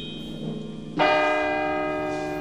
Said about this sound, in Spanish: A las 4, Scrooge se despertó y a partir de entonces el reloj comenzó a avanzar con rapidez, dando las campanadas y haciendo pasar un día entero en cuestión de minutos.